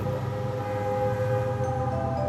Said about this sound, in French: Vous souriez mais vous devez ralentir car vous vous butez à un bouchon soudain paralysant complètement la circulation. Ça klaxonne énormément. Ça devient très anxiogène.